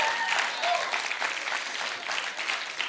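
A crowd claps steadily in a dense, sustained burst of applause that holds at an even level for a few seconds, with no one speaking over it.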